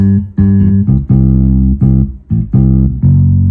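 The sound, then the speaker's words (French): A synthesized bass line on track 2 plays back alone with track 1 muted, a run of about six sustained, deep notes in steady succession, loud with no voices or other instruments. “Et on entend que la basse.”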